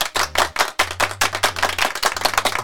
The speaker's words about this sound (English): And her, let's give her sister a round of applause too